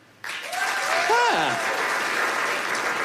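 A comedy audience's clapping starts suddenly in answer to a comedian asking who has heard of Coco the Gorilla, and keeps a steady, moderately loud patter for about three seconds. A short vocal whoop rises and falls over the clapping near the middle.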